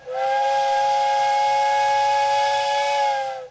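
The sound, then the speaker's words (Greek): A train whistle blows one long, steady blast of layered tones with a breathy hiss, holding loud and unbroken for about three seconds before cutting off. No one speaks. “Ή όταν ακού τι ράγε να σφυρίζουν και λε, Έρχεται το τρένο.”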